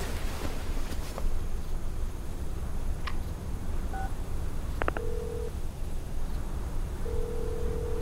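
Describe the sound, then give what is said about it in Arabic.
A mobile phone rings with short electronic beeps and two steady tones over a constant low hum, fairly faint and with no one speaking. “رد على الجوال دامك على حق رد على الجوال”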